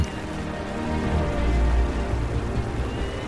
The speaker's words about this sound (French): lorsqu'il vérifia lui-même la météo, il se rendit compte qu'en plus du vent, une forte pluie s'abattait maintenant sur tout le pays.